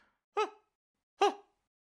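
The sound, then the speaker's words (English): A voice imitates a mother's sobbing cries from a scene: two short, breathy, wavering wails about a second apart, fairly loud, with silence between and no other talk. “by the way, I also think the mother's performance in this scene, including her cries, which sound like this,”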